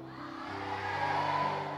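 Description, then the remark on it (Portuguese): A crowd of people at a camp shouts "glória a Deus" (glory to God) together in unison on a count of three, a loud, sustained mass of voices that swells slightly and holds for under two seconds. “Um, dois, três, dá glória a Deus.”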